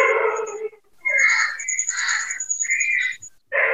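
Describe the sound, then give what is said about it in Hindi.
A dog barks loudly at a participant's home, heard over an online call: a run of four or five drawn-out, harsh barks with short pauses between them, and no one talking. “जिसके यहाँ कुत्ता भौंक रहा हो कृपया वो म्यूट कर लें जब कुत्ता शांत हो जाएगा तब अनम्यूट कर लीजिएगा”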